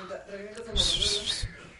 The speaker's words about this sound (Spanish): ¿Estás reventando tu cohete? Claro. Así es. silbadores, silbadores.